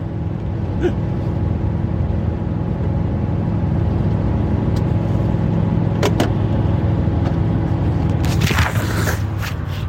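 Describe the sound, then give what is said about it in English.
Steady low engine drone and road rumble from a van driving up 29, continuous and fairly loud, with a few brief clicks and a short hissing whoosh near the end. No one speaks. “so I literally just have my phone propped on the uh, on the damn dash here while I'm driving up 29.”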